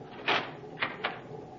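A cabin door on a Navy cruiser swings shut with a soft thump, followed a moment later by two quick metallic clicks as it is locked. No one speaks.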